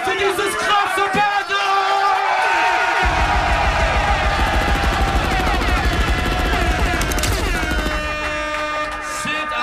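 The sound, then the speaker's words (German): A loud, dense wall of audience noise cheering for an MC fills the whole clip, with cheering and shouting swelling together, and a booming rumble joining in partway through as the roar keeps going. “Macht Lärm!”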